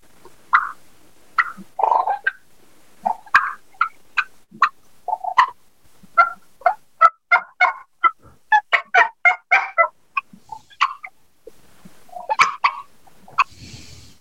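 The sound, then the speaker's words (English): A person demonstrates a loud sequence of turkey calls: raspy yelps, sharp bubble clucks, rolling purrs and a drawn-out whine, with a quick rhythmic run of yelps in the middle and no talking. “Yelp, and I'm going to do a bubble cluck per and a whine.”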